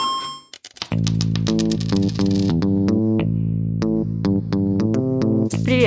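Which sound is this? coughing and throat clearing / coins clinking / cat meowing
coins clinking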